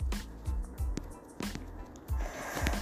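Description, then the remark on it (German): Soft rustling and brushing of fingers swiping across a touchscreen during a game battle, repeating in quick strokes about every half second, with faint thumps and no voices. “Ähm, ich glaube, man hört da gerade so ein Rascheln oder so. Ich halt über den Bildschirm streichen muss.”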